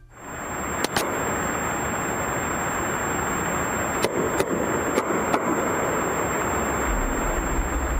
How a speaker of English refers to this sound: Late in day two, CNN reports that the Canadians heard banging noises at 30 minute intervals from under the ocean, and that changed everything. This is the sound that was heard.